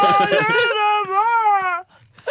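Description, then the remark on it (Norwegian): A voice mimics autotuned singing, holding one bright, buzzy sung note for about a second with small stepped wobbles in pitch. It stops abruptly, then a brief breathy sound follows. “som autotuner seg selv.”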